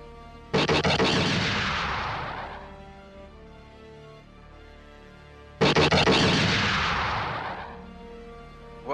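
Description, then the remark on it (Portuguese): Two loud artillery shots about five seconds apart, fired from a rising ship at a hill, each a sharp booming blast that rolls off into a long rumbling decay, with no one talking. “E no que ele começa a subir, ele já vai começar a atirar no morro para fazer os troopers pegar a cobertura e não avançar, para eles ficarem com medo de avançar.”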